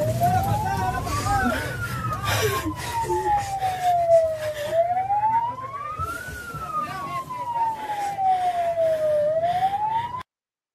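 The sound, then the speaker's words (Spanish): An ambulance siren wails loudly, sweeping slowly up and down in long rising and falling tones over rumbling traffic noise, then cutting off abruptly; the ambulance is carrying a woman in labour to hospital. “Vamos a ver el otro video, el de la ambulancia.”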